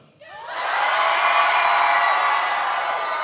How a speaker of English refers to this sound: So, everybody in here, yell toward auditorium. Go.